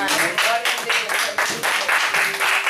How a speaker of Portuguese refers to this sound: Você pode aplaudir Jesus neste momento.